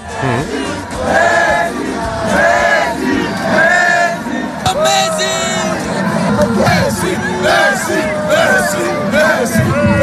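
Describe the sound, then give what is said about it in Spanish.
A large, loud crowd of football fans, with flags, chants and sings together celebrating after a final at the Puerta del Sol in Madrid, the chants centred on Lionel, voices rising in rhythmic waves with shouts and whoops over a constant roar. “nada más terminar la final, empezaron a llegar ya las primeras riadas de gente a la Puerta del Sol y pocos minutos después estaba ya abarrotada, llena de gente de banderas e imágenes de quién ha sido el protagonista de, los cánticos.”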